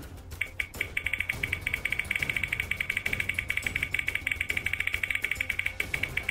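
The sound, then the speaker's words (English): A game show prize wheel spins, giving off a steady run of rapid, sharp ticking clicks that continues throughout with no talking, over a low background rumble. “So wheel is going to go up. Here it is. And here's the spin.”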